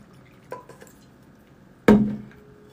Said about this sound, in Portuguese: Só vou beber uma água aqui, pessoal.